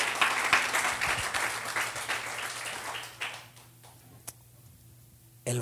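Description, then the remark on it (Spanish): A crowd breaks into loud, dense applause for God, which fades over a few seconds to scattered claps, with a brief sharp burst of sound near the end. “Alguien dele un aplauso fuerte a Dios.”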